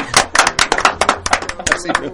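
Audience applause as a guest is introduced: a burst of many overlapping hand claps, fairly loud and irregular, with sharp bright slaps crowding together and holding steady for a couple of seconds.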